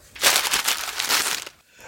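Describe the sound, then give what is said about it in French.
Paper rips and crinkles for about a second and a half, a dense run of crackly, scratchy bursts as an envelope from the mail is torn open, with no voices. “D'accord, j'ouvre le courrier.”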